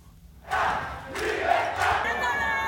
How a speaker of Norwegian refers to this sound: Frihet og ned med diktaturet, ropte tusenvis av cubanere i juli. De spontane protestene var de største på flere tiår.